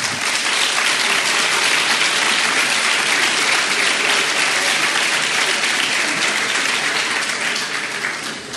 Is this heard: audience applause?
yes